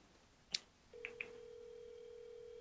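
A click, then a steady, moderately loud telephone tone starts and holds to the end, like an outgoing call ringing, with two quick high beeps near its start. No one speaks.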